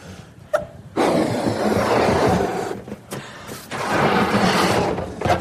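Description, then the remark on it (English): Several people blowing air into balloons: two long, breathy rushes of exhaled air with a brief pause between them, preceded by a short sharp click, and no talking. “Okay, and when you've done that, blow up the balloon. But don't tie it off, just blow up the balloon.”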